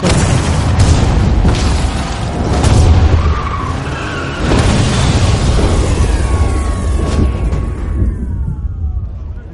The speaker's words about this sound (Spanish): Fuerzan una puerta que indica alto voltaje y colocan un explosivo.